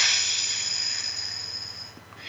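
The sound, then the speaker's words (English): A long, steady breath pushed out through pursed lips during a guided breathing exercise, an airy hiss lasting about two seconds and gradually tapering off, with no talking. “Out through the mouth like through a straw.”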